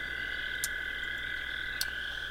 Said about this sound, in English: And then suddenly, the ground beneath you begins to rumble as a chorus of croaking rings in your ears and a giant frog emerges out of the ether, out of the ground.